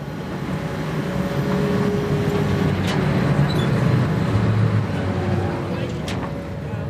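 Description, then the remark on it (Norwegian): A high-speed passenger boat's engine, heard on board the boat from Harstad to Bjarkøy, drones steadily and loudly for about seven seconds, a deep rumbling roar with a few sustained humming tones running through it, unchanging from start to finish. “Vi er om bord på hurtigbåten fra Harstad til Bjarkøy.”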